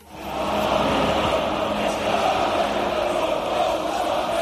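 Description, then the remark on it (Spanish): A huge stadium crowd of English football fans in Russia chants and roars together, a dense, loud wall of voices that swells in quickly and holds steady throughout, with no single speaker standing out. “Así que ayer fue la última vez que lo escuchamos en un estadio aquí en Rusia.”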